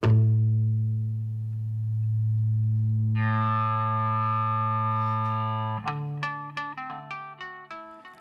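A sustained, humming electric guitar feedback tone swells and turns brighter and buzzier for several seconds, then gives way to a quick, ringing guitar riff of plucked notes.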